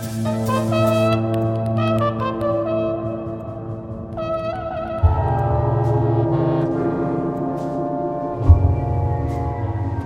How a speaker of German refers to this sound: Auf dem Sund stöhnte unablässig ein Nebelhorn.